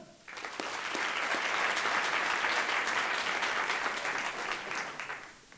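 An audience applauds steadily for about five seconds, a dense, bright wash of many hands clapping that swells quickly, holds level, then tapers off at the end.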